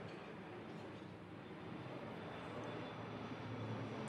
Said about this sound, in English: I'm gonna let that plane go over.